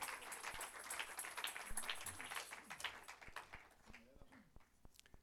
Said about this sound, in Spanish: Dele un aplauso fuerte, pero fuerte a ese Dios vivo maravilloso.